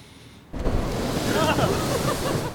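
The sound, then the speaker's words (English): A sudden rush of cold ocean surf bursts in after a brief quiet moment, then a steady, loud wash of splashing water continues, with faint voices partly buried beneath it. “A splash of cold water may be easy enough to avoid, but cold altogether, that's a different story.”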